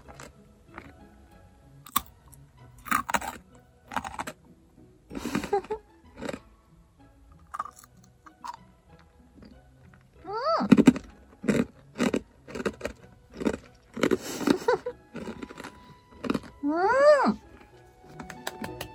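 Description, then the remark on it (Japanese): Loud, crisp crunching from a very hard Japanese rice cracker (senbei) being bitten and chewed, a rapid series of sharp cracks with a few brief vocal sounds between bites. “おせんべいです。これまた美味しそうな。おこれは、噛めるかな、私。見るからに硬そう。”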